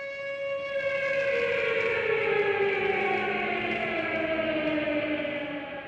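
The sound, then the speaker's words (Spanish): A civil defense siren sounding at Pasteur 633 in Buenos Aires, Argentina, at 9:53 on July 18 for the 85 AMIA victims, wails steadily for several seconds, its rich, loud tone sliding slowly downward in pitch, heard alone without any voices. “Cada 18 de julio a las 9.53 suena una sirena en Pasteur 633.”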